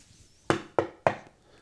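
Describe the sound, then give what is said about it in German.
Three knocks on a wooden bed frame, made by the eldest of the sisters, evenly spaced, each a short sharp thud that fades quickly, with quiet room tone between them and no voices. “wie sie alle fertig waren, sahen sie erst nach dem Soldaten, der hatte aber die Augen zugetan, rührte und regte sich nicht, und sie glaubten nun ganz sicher zu sein, da ging die Älteste an ihr Bett und klopfte daran.”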